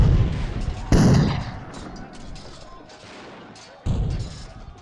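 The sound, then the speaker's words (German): Heavy cannon blasts boom out, one sharp report near the start and another toward the end, with rumbling, scattered gunfire rolling in between: the first shots of the American Civil War, fired in the night of 12 to 13 April 1861 as the Southern states attack Fort Sumter. Loud, deep and reverberant, like a battle. “In der Nacht vom 12. auf den 13. April 1861 fallen die ersten Schüsse.”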